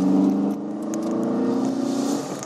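A car engine hums steadily throughout, a low continuous drone with a faint rising rev near the middle, unbroken, with no voices over it.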